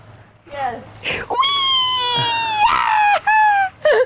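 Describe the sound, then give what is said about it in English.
Cats meowing up close, a loud, long drawn-out yowl in the middle, bracketed by a few shorter, rising meows before and after. “Are they cats? Yeah.”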